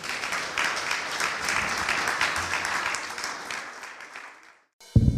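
A crowd applauds steadily for several seconds, dense clapping that fades out near the end, followed by a brief abrupt burst of a different louder sound.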